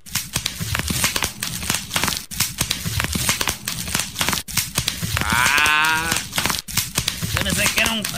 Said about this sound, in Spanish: Y efectivamente, vamos a escuchar el sonidito, esas burbujitas de plástico que las usan para proteger algunas cosas en, en las cajas y todo eso. Escuchemos.